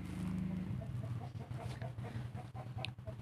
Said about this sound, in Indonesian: eh sorry nih ada suara ayam nih